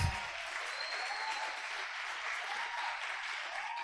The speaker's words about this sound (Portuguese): Vamos recebê-los com uma salva de palmas.